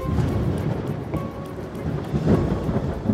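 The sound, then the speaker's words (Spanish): The first drops of rain fall steadily, a dense wash of patter over a low rumbling undertone, with slight swells in loudness throughout and no voices. “Las primeras gotas de lluvia interrumpen su pensamiento,”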